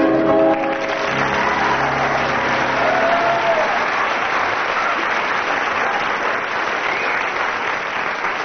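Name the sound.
audience applause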